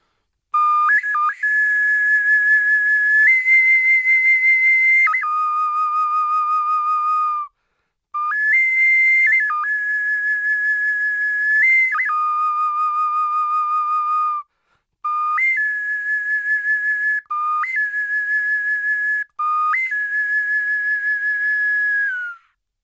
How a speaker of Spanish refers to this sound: Bueno, pues mira, ya que estamos hablando de este silbato, vamos a, voy a tocar, voy a tocarlo.